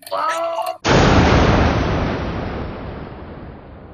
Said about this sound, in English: Oh, is that is mm. the whole bunch of explosions going around in here.